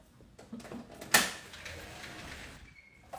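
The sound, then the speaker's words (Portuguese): A door is opened: a few soft handle rattles, then one sharp latch clack that fades into a low rumble. The sound is fairly quiet overall, with no one talking. “deixa eu abrir a porta pra Maria aqui”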